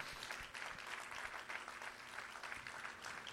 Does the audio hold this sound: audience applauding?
yes